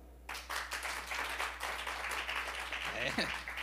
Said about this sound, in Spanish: Hermano, eso, esos aplausos eran para Dios o para mí. ¿Y para mí cómo sería? ¿Y para Dios?